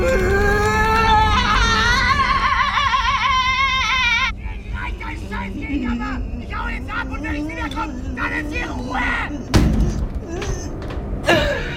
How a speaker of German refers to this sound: Das Knallen der Wohnungstür lässt Sabine zusammenzucken.